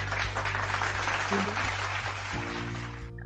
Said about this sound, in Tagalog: Ayan! Agit ng palakpak. Ang haba kasi ng palakpak dito.